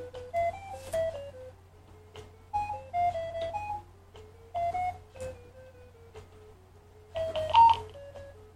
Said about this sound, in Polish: Działa to w bardzo prosty sposób, mianowicie telefon informuje nas wysokością dźwięku. Im dźwięk jest wyższy, tym jesteśmy bliżej źródła światła, im jest niższy, tym od tego źródła światła się oddalamy.